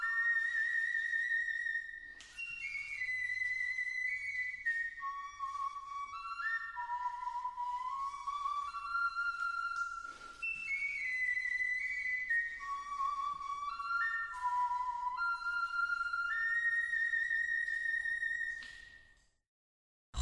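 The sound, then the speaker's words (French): A replica of a swan-bone flute plays a high, breathy, slow, wandering melody of sustained notes that slide between pitches, heard alone with no talking, before fading out at the end. “Euh, quant à la flûte de cygne, elle a permis de construire une réplique qui a été jouée lors d'une séance mythique de Flutio Hero devant les micros et caméras de la Terre entière.”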